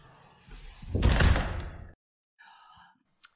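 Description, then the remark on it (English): A door slams shut once with a loud, heavy rush of noise, then everything goes quiet except for a faint, brief tonal squeak afterward. “We shall slam the door.”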